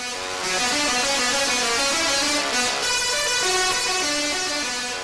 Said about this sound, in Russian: Есть еще музыкальная катушка Теслы, и электрический разряд играет суперхиты.